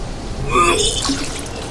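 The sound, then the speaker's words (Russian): A brief rush of splashing water, like a wave breaking over a ship, as a storm begins at sea, swells to a peak and then fades into a steady watery hiss. No one speaks. “И как шторм начинается. Похоже на то.”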